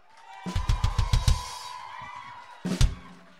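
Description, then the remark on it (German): Short bursts of clapping from a small audience for the band's keyboardist, fairly loud, fading after about a second, then a brief final flurry, with a faint steady tone humming underneath. “Kurzen Applaus für die.”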